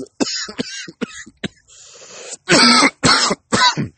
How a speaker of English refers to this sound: Excuse me. Oof. Sorry if you hear my gulping been like having some serious allergies or something lately. Been coughing a lot. Coughing, um, sinuses are kind of clogged. But um, I'm powering through it.